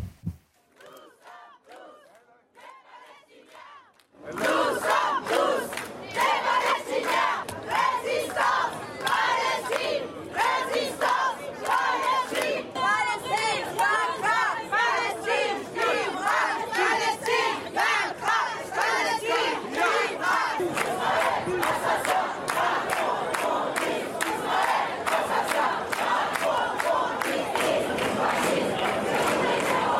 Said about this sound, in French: Écoutez cette manifestation Résistance Palestine. C'est à Marseille et c'est en France.